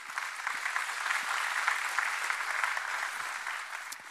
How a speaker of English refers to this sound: Somebody give the Lord a hand in Jesus' name.